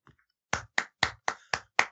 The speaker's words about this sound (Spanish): Eh, maravilloso segmento, fue eh, lo mejor. pensé que aplaudías mi, resumen, pero bueno, adelante.